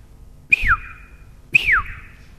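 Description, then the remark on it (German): Someone imitates a marmot's alarm whistle, its warning of danger to the others, with two sharp, loud whistles about a second apart, each starting high and sliding quickly downward, with a faint breathy hiss around them. “Die Murmeltiere, da war einer da, der war der Polizist. Der hat mit seinem Pfiff zu den anderen gesagt, Gefahr”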